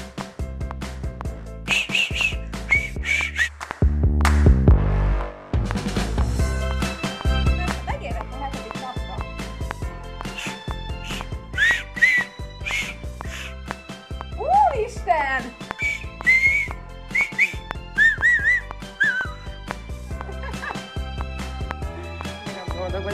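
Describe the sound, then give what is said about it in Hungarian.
A person learning to whistle whistles a lively tune with their lips, bright trilling and gliding notes rising and falling over steady accompanying music, fairly clear. “Fütyüljünk ma is.”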